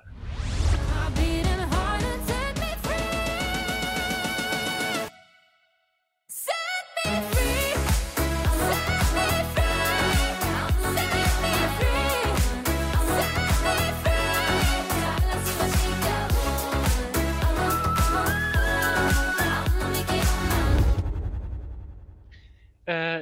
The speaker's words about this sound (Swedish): Och i år sjunger hon … och det låter så här.